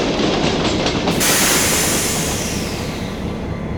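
A train rumbles loudly and steadily along the tracks, a dense, continuous clatter with a brighter rushing hiss surging in partway through. No voices are heard.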